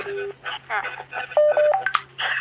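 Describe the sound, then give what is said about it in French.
A string of short electronic dialing beeps, an attempt to communicate with Earth, sounds over crackly, radio-like voice chatter and a low steady hum, the tones clicking on and off in a quick, uneven sequence. “Tentative de communication avec la Terre.”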